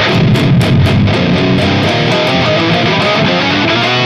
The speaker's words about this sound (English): Uh, and it sounds really ominous and what's cool is you can add that with you know distortion